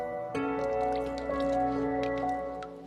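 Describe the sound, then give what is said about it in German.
A dip sample of water is scooped out of a rain barrel to check for mosquito larvae, with a few soft sloshes and drips over a steady low hum, quiet. “Also ich habe jetzt hier ganz typisch aus der Regentonne eine Schöpfprobe genommen und auf den ersten Blick sind es für mich Hausmückenlarven.”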